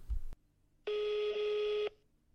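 A brief muffled thump, then a steady electronic telephone tone holding for about a second before cutting off cleanly, clear, with no voices, heard while waiting on hold in the phone queue of a GP's medical centre.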